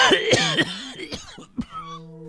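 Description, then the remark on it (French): A deliberate, loud cough done live right into the mic, a rough burst of several hacking expulsions with throaty, strained vocal tones, ending in a brief lingering hum. “vous l'avez entendu dans vos oreilles et vous avez peur maintenant. Il y en a qui vont aller se faire dépister.”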